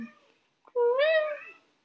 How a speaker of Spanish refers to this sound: No sé si se escucha la gata llorando, pero.